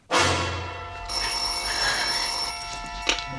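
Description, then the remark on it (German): An old-fashioned telephone bell rings loudly and continuously in a short radio crime play, a bright metallic jangle with lingering overtones, heard alone without any voices. “Es sind Kurzhörspiele aus zwei verschiedenen Sendeanstalten, aber beide stammen aus der Kategorie Frauen in einsamen Häusern allein am Telefon.”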